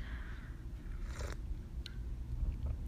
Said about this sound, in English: sorry, I had to take a sip of my tea. Oh my god. I never make peppermint tea